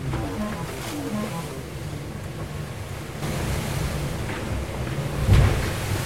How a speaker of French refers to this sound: Alors là, dans l'instant, il y a 35 nœuds et le bateau avance à 23 nœuds. 24, 25, 26, 27, 28, 29, et ça redescend.